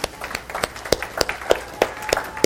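A small crowd applauds with a dense scatter of sharp, crisp hand claps that overlap unevenly for a couple of seconds at moderate volume, with no voices over them.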